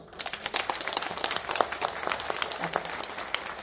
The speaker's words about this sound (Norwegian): Skal vi gi henne en applaus?